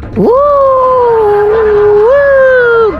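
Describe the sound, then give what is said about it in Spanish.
A person imitates a coyote howl: one loud, sustained, wavering falsetto note that swoops up at the start, holds for about three seconds with a small rise midway, then drops off. “¿Qué traes ese tripio? Pareces coyote.”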